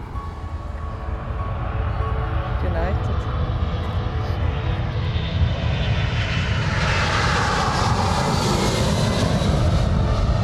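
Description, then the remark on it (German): A loud, steady airplane engine roar, a deep continuous rumble with a broad hiss on top that swells slightly toward the end. “wieder beeindruckend, dass so Flugzeuge fliegen können.”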